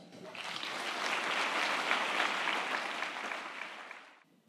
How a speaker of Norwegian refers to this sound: Gi henne en stor applaus.